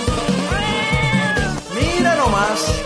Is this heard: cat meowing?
yes